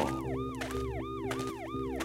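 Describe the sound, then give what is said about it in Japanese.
A police car siren wails loudly and steadily as the car approaches, its tone sweeping up and down in quick repeating cycles over a low engine rumble, with no voices. “なんかサイレンの音が聞こえてきたけど近くで事件でもあったのかな”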